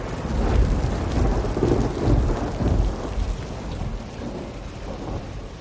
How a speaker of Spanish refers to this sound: Mira al cielo. Llueve sobre la inmensa montaña de basura.